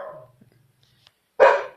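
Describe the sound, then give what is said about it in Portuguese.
A female pet dog barks loudly twice: a short bark at the start, a brief quiet gap, then a louder, fuller bark near the end. “Então, gente, em suma, eita, minha cachorra tá latindo aqui.”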